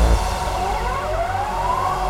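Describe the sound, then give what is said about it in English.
A Dutch police siren wails with a steadily rising pitch, loud and continuous over a heavy low rumble of traffic noise, with no voices present. “Nederland politie. You know this sound.”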